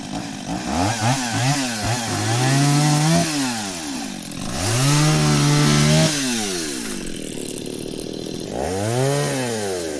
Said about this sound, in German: Auf einem wird gerade gerodet. Was er mit der Motorsäge abschneidet, schmeißen die Schwestern aufs Feuer.